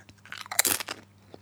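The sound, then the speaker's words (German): A short burst of crisp, dry crunching as potato chips are bitten and chewed, several quick crackly bites clustered together, with no talking. “Wenn du gerade was erzählst, solltest du dir keine Chips in den Mund stecken.”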